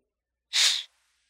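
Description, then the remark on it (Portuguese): A single short burst of breathy air exhaled through the nose hits the microphone, a sharp hissing puff lasting under half a second, then silence. “Cara, o seu microfone, ele tá pegando o vento do seu nariz, cara.”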